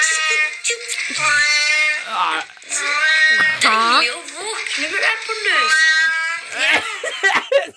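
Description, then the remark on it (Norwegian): A cat lying on a tiled bathroom floor gets up and meows and yowls repeatedly, loud drawn-out cries that rise and fall in pitch, coming in quick succession with short breaks between them. “Det er en katt som ligger på baderomsgulvet, tror jeg.”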